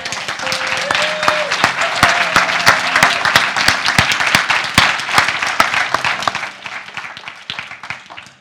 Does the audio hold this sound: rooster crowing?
no